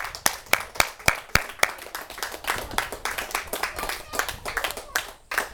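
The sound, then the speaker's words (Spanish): An audience claps together as an offering of applause to God, opening with a few sharp, loud, evenly spaced claps before breaking into dense, steady applause that fades slightly toward the end. “Ofrezcámosle una ofrenda de palmas gratas.”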